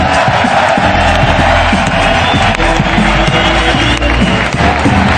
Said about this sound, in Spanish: Eh, vale, pues un aplauso para ellos. Andrei Rublev, Diego Suarman Ingrid García Johnson y Raúl Cimas.